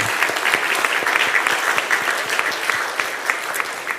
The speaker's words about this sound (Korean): 그리고 우리 시간 현장이라든지 아니면 영상이라든지 예배를 드리시는 모든 분들이 우리 그런 아버지들을 향하여서 남자들을 향하여서 우리 뜨거운 박수로 격려했으면 좋겠습니다.